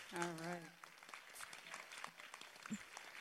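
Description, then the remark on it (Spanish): An audience applauds after a speech with a steady, dense patter of many hands clapping, fairly soft overall, while a brief voice sounds at the very start. “Aplausos, aplausos.”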